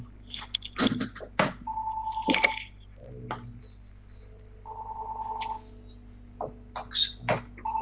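A mobile phone rings with sustained electronic tones, two clear ringtone bursts a few seconds apart, mixed with clicks, taps and small wet-sounding knocks; no one speaks.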